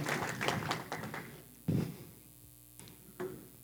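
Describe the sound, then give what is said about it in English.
A short burst of scattered audience applause for two volunteers that quickly dies away, followed by a few dull thumps and knocks. “So, can we give a round of applause for our two volunteers?”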